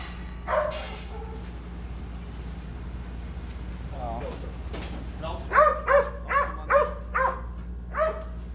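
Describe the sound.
A man talks while service dogs bark in kennels in a K9 area, first a single bark, then a quick run of five or six sharp barks near the end, clear.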